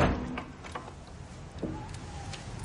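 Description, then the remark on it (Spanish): A door closes with a low thud as Melisandre shuts it, followed by a few soft clicks and creaks of the latch and hinges over a quiet background, with no one speaking. “Nieve mira tenso a Melisandre que cierra la puerta.”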